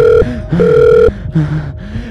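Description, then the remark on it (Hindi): A phone rings repeatedly with no answer, a steady electronic tone in short bursts with brief gaps between them, fairly loud, with faint low rustling underneath. “अरे यार ये साला फ़ोन भी नहीं उठा था फ़ोन तो उठा दे साले फटी पड़ी है मेरी यहाँ फ़ोन जल्दी से पिक कर”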